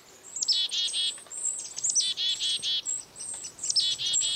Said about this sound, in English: A closer look and listen reveal that this foraging flock includes several species of birds chickadees, kinglets, and even a downy woodpecker.